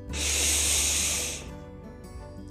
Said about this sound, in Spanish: Por ejemplo, si estás muy molesto, enojado, respira, respira, pero haz una respiración profunda, ¿no?